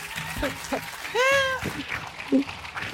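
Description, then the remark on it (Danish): An audience claps steadily for a few seconds, a crackling spread of applause with a drawn-out cheer or whoop rising over it midway and scattered voices mixed in. “Giv en kæmpe, kæmpe, kæmpe stor hånd til siden sidst. Yeah! Kom, kom, klap, klap, klap.”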